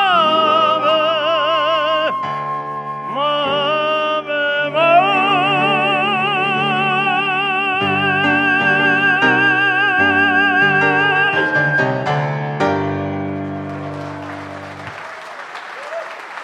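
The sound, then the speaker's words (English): A flute holds long, vibrato-rich notes over soft piano chords, the melody winding up to a final sustained tone before a burst of audience applause takes over at the end. “That was, you couldn't see her because she was sitting next to Aryell at the, at, the, at the piano, but that was Judy Goldwater playing the flute.”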